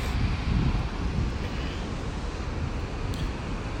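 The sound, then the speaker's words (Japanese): Steady, loud wind roars and buffets against the microphone beside a beach throughout, a dense low rumble with constant gusty rustling and no talking. “ちょっと風が強いからボーボー行ってるから大丈夫ですかね今こう今あのビーチの横に座ってるんですけども結構いろんな音聞こえるんじゃないですかね”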